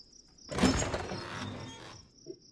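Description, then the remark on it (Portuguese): A heavy barn door slides open with a rough, rumbling scrape lasting about a second and a half, fairly loud, over a steady high insect-like hum, ending in a faint knock. “E vou lá abrir um celeiro.”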